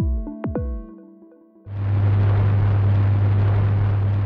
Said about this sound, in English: What you're hearing right now is the earliest known recording. Believe it or not, it's a tuning fork, and it was recorded in 1859.